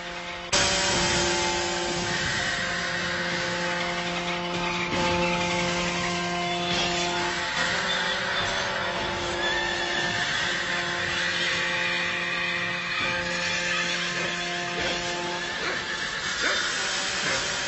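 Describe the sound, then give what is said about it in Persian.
Shrill, sustained screams of a dying rabbit blare loudly and continuously through a loudspeaker, played as an annoying sound to members of the Branch Davidian sect; a harsh, wavering cry layered over steady hiss and noise, with no talking. “یا صداهای آزاردهنده مثل جیغ خرگوش در حال مرگ رو پخش میکردن حالا یه تیکش رو براتون میذارم بشنوید که چه چیزی اون زمان اعضای فرقه داودی میشنیدن”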